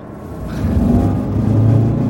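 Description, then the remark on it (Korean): A car engine rumbles steadily, its low growl swelling as it revs and holds a higher pitch, with a faint mechanical whir underneath and no voices. “뭐야? 아, 차 또 왜 이리 고쳤다면서? 나, 어, 브레이크도, 오!”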